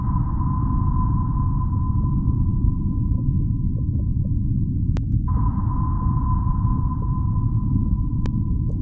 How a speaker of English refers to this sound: that's some underwater. That's sonar from a submarine. That's her theory. Is that's what's at the beginning of Jaws.